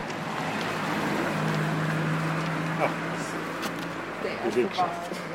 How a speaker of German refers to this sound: Ein Auto rollt vorbei, dann noch eins.